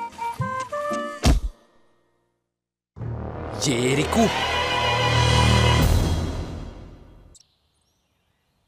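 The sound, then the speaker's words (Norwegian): A single heavy thud of someone pushing against a wall lands sharply over a short tonal passage, then a long, dense wash of rumbling noise swells for several seconds before cutting off. “Jeg tror noen støtter mot muren vår.”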